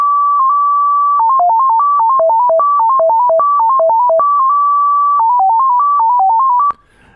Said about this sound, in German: Das war das UKW-Euro-Signal, welches immer am Anfang der Skala ganz links auf 87,5 ausgestrahlt wurde. Mittlerweile auch Geschichte.